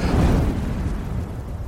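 A loud, deep whoosh of fire bursting out of a furnace as a small silvery nugget is tossed into it, a rumbling roar that holds steady for under two seconds, with no talking.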